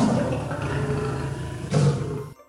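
A lion roars loudly, a deep rumbling growl sustained for about two seconds with a second surge near the end before it cuts off abruptly.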